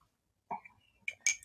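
A spoon clinks against the inside of a cup of hot coffee: a soft knock followed by two bright, ringing taps, quiet overall after a moment of silence.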